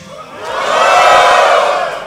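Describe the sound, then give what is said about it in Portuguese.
A large audience shouts a greeting together, louder so the microphone picks it up, in one loud, sustained collective yell, swelling over about a second and then tapering off, with no single voice standing out. “Primeiro de tudo, é, vocês precisam gritar um pouquinho mais alto para o microfone captar vocês.”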